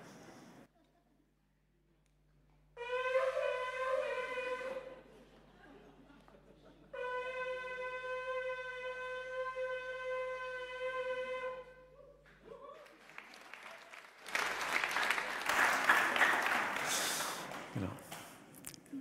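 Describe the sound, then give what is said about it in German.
Two long, brassy blasts blown on a shofar, a ram's horn, each a steady harmonic-rich tone lasting a few seconds, followed by a burst of breathy, noisy sound and some rustling. “sondern es ist ein Shofar. Und ich habe gedacht, ich blase da mal rein, damit ihr mal so eine, eine Idee bekommt, wie schön das klingt.”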